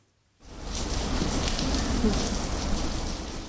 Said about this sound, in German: Es regnet wie aus Kübeln und das mitten im Januar.